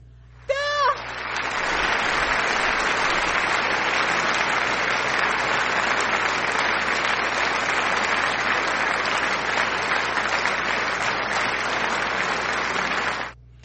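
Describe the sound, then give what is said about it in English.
A loud crowd booing sound effect plays on its own for about thirteen seconds, a dense, steady roar of many voices that opens with a quick rising whistle and then cuts off abruptly. “uh i guess some of y'all just like to hear the boo sound effect”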